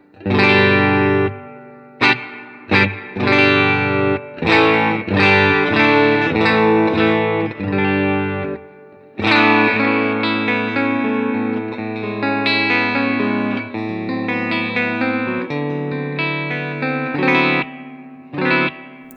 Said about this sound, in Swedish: Jag tänkte säga, det låter ju som eh, fjäderreverb. Och det är precis vad det är.